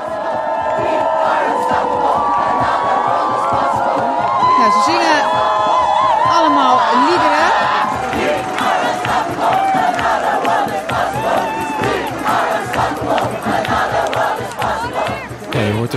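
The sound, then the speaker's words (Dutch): A large crowd at a street climate protest chants and shouts in unison outdoors, voices rising and falling in rhythmic slogans, loud and dense, with scattered cheers and whoops mixed into the steady roar. “Allemaal protesten die op straat plaatsvinden. En daarbij hoort eigenlijk een soundtrack. Er wordt altijd gezongen bij die demonstraties.”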